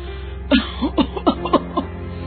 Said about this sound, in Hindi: तो देखा कि उसकी माँ लगातार खांसी जा रही है खांसते खांसते उनके मुंह से खून भी निकल गया अम्मा अम्मा ये खून कैसे निकल गया पता नहीं बेटा ये खांसी तो जा ही नहीं रही है